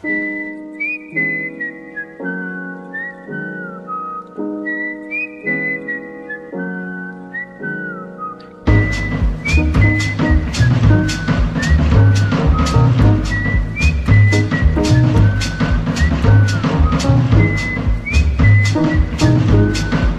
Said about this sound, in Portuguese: uma música muito legal chamada …. Eu escutei alguém assobiar.